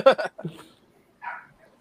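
A couple of quick, sharp dog barks up close, followed after a short pause by a single higher, fainter yelp.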